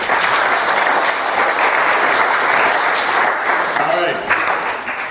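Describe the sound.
A loud, sustained round of applause from a crowd, dense steady clapping throughout, with a brief voice rising over it near the end before the clapping begins to taper.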